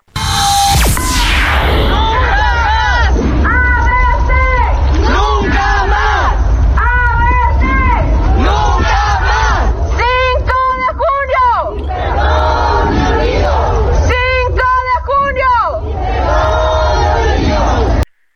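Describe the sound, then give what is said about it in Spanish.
A large crowd of parents, relatives and friends chants in unison outdoors outside Mexico's Supreme Court of Justice of the Nation, protesting 14 years after the ABC daycare tragedy in Hermosillo, Sonora; rhythmic shouted phrases repeat steadily and loudly over a constant murmur of many voices for the whole stretch. “Vamos a escuchar lo que, lo que ocurrió en el día de ayer en esta protesta.”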